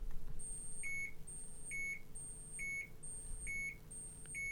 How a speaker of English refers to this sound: Would you, would you respond to that alarm? Maybe. Uh, that would be to me. That would be more of an operator prompt